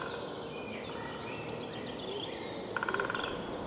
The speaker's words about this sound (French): Et là, le son d'un pic qui tambourine.